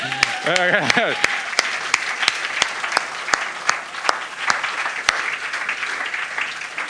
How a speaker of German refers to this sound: Heißt mal ganz herzlich willkommen mit einem riesigen Applaus.